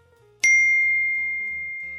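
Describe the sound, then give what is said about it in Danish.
A single bright notification ding, as a message appears on a screen, strikes sharply and rings on with a long, slowly fading tone over a quiet, low background hum. “En besked kommer frem på skærmen.”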